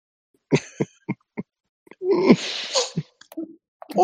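A phlegmy coughing fit: four short, sharp coughs in a row, then a long, wet, rasping hack, ending with a few more sputtering coughs and no talking.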